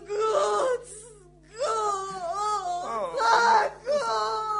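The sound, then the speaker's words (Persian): A suffering woman wails in anguish, long drawn-out moaning cries rising and falling in pitch, with a brief pause before the sobbing wails resume, loud. “خدای من دیگه نمیتونم این صدا رو بشنوم مگه تو برای انسان ها خودتو به کشتن ندادی ها حالا هم یک انسان رنج میکشه”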